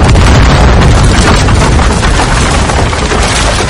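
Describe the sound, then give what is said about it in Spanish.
A dynamite explosion after the dynamite is lifted overhead and thrown: a loud, dense blast that roars and rumbles steadily for nearly four seconds with heavy low-end boom and crackling noise throughout, no voices. “Levanta la dinamita por encima de su cabeza. Gracias. La arroja.”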